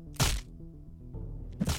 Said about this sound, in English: So that was me hitting the hammer with the hammer.